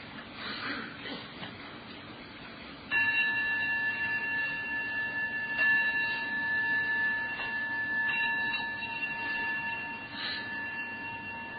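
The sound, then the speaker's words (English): A meditation bell is struck three times to begin with homage to the Buddha; its bright, steady ringing tone hangs on and layers with further soft strikes over a quiet hum. Nobody speaks. “Okay, so we'll just begin with uh, three bells and uh, homage to the Buddha.”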